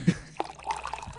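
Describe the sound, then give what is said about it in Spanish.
A brief, faint trickle of water with a few scattered drip-like plinks, heard on its own with no talking, lasting only about a second. “Ese es el sonido de mis lágrimas.”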